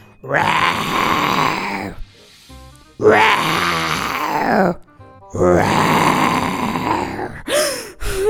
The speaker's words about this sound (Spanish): Ay, el sultán estaba muerto de miedo, pero aún así se quedó en su cuarto. Y toda la noche escuchó el rugir de los leones.